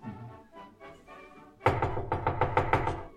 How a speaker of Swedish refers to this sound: Du hör en ivrig knackning på eh, ytterdörren.